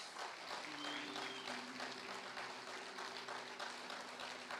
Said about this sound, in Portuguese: Dá para você aplaudir a Jesus?